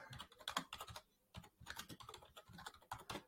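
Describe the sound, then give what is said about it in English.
Rapid clicking of keys on a computer keyboard, a busy run of keystrokes in irregular bursts with a brief pause midway, moderately quiet, with no voices. “We have to type it on now.”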